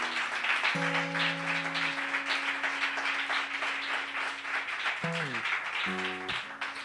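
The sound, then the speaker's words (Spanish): A steady wash of audience applause fills the whole stretch, dense and continuous, with sustained musical tones sounding underneath and a few short notes near the end. “Nada, ya agradecer a Radio Utopía y a, todos la, el aplauso.”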